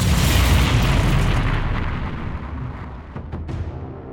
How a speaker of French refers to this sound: Le taxi s'encastre dans la Renault 19 des flics. Il y a du verre cassé, de la fumée.